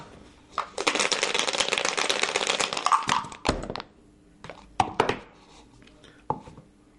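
Dice rattle steadily for about two seconds, then a few sharp clacks follow as they tumble and land on a hard surface, close and fairly loud with no voices.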